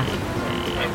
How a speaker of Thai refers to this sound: และเสียงกบก็เรียกร้องให้ผู้คนนะคะ เดินทางออกไปจับกบ